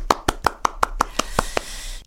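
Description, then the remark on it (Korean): A single person claps hands about nine times in a quick, steady rhythm, each clap sharp and bright, with the last few softer and trailing off into faint background noise. “자, 열심히 예, 공부하고 준비한 학생들 그리고 뒷바라지 하느라고 수고하신 부모님들께 박수 한번 드립니다.”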